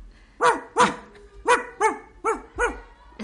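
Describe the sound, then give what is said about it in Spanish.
A dog named Libby barks six times in quick pairs, loud, each bark sharp and tonal with brief pauses between the pairs; no one speaks. “Libby, si estás escuchando este programa, seguramente. Ládrame.”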